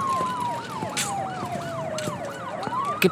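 Police and ambulance sirens blare together: one repeats a quick rising-and-falling wail about twice a second, while another holds a long, slowly sliding tone, loud and steady with no talking.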